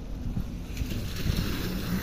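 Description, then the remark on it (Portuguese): A car rushes through a puddle on an asphalt road, nearly drenching a person beside it, tires hissing and splashing water in a steady wet spray over low rumbling road noise, with no voices. “Agora um carro passou aqui numa poça de água e quase me molhou todo.”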